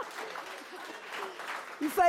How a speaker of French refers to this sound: Alors, je crois qu'on peut applaudir ça, voilà.